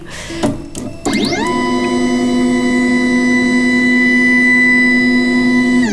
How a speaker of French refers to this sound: En fait, c'est juste une toute petite carte en plastique. Comme elle est plastifiée, elle, racle la tête de l'imprimante 3D, donc elle permet de voir si on a une bonne tension ou pas, et si c'est trop proche ou pas assez proche.